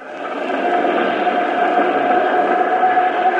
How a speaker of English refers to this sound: All set to fire. Clear? Clear. Starting starboard jet,